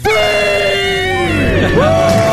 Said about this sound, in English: Count it down. Let's hear a debt-free scream.